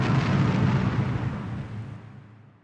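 A heavy, rumbling explosion as a B-29 bomber breaks apart in the air after being attacked by a specially built Raiden fighter armed with a 30 mm cannon, a broad roar that starts loud and slowly dies away over a couple of seconds, with no voices.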